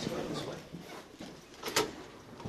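A door leading out to a memorial is pushed open amid steady shuffling and rustling, with a brief, sharp clunk of the mechanism partway through, moderately loud.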